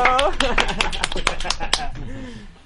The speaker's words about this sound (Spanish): Eh, un aplauso, por favor.